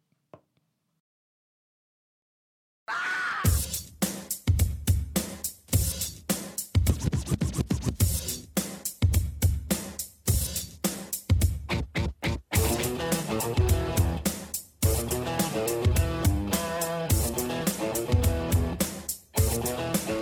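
After about three seconds of silence, a loud rap rock track kicks in, opening with rapid, choppy turntable scratches over pounding drums before guitar and rhythm settle into a steady groove.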